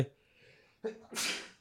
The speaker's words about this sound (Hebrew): לבריאות, לבריאות.